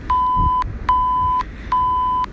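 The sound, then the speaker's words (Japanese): Three loud, steady censor bleeps from the Radiotalk app's built-in sound effects, at a single pitch, each about half a second long with short gaps between them, sounding alone over a faint low background rumble. “あ、規制音も入るんだね、これ。”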